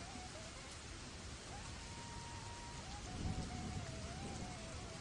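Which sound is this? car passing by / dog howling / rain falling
rain falling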